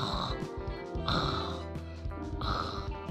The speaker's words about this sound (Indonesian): ngapain tuh itu ngorok ngorokmu parah wah awal-awal aku kaget ngeliat dia denger suara ngoroknya buset tapi suaranya nggak nanding ya aduh makasih eh itu kalau ada toa masjid mah udah ampun yang minta ampun ngalang ngalahin toa masjid